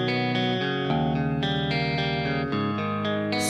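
A distorted rock guitar intro plays loud and sustained, with thick layered chords changing every half second or so over a steady low bass, no voices present.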